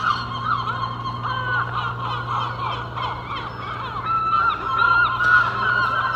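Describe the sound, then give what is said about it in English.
A dense, overlapping chorus of seagulls squawking and crying continuously in a harbour at low tide, at moderate loudness, with a steady low hum running underneath throughout. “And although I am looking forward to my own bed a little bit due to the lack of seagull cacophony around its perimeter.”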